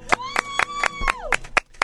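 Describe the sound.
Steady rhythmic clapping, about eight evenly spaced claps, close and fairly loud, with a sustained voice-like tone held over them that slides downward near the end.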